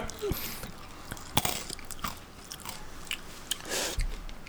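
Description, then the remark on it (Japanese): Crisp, crunchy bites of a spicy snack followed by steady chewing, with sharp crackling bursts scattered irregularly over a few seconds at a moderate, fairly quiet level, no talking over it. “あ美味しいなこれスパイシスパイシーですねスパイシースパイシーです”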